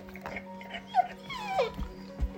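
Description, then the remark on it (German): Dogs whimper and let out short, high yips, wanting attention and to play, a few rising and falling whines over a steady low hum, with no talking. “Und jetzt wollen meine Hunde gewürdigt werden und wollen spielen.”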